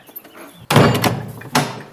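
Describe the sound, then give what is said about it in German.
A large, heavy old wooden and metal door, the entrance to Trim Castle, a 12th-century Norman fortress on the south bank of the River Boyne, is worked: a loud, sudden clunk, a rumbling scrape, then another solid thud, with no voices. “Wo sich einst eine Zugbrücke befand, schreiten wir über ein paar Treppen und eine kleine Brücke zu einer großen, alten, schweren Tür aus Holz und Metall.”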